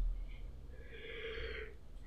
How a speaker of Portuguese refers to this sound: Ué, por que, que eu tô bocejando, cara? Eu não tava bocejando antes de começar a gravar.